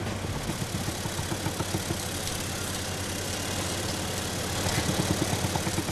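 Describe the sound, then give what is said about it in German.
A heavy well-drilling rig engine runs steadily with a low, throbbing rumble and rapid rhythmic pulses, with a broad mechanical hiss on top and no voices. A well builder is drilling about 40 meters deep to reach groundwater for a well for a new pig barn. “Um ans Grundwasser zu kommen, muss er etwa 40 Meter tief bohren.”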